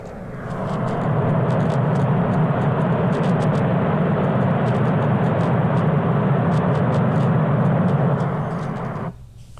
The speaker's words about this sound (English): if you want to like help yourself like relax and like have your anxiety go away and your fear, you know. So listen to this. This is brown noise.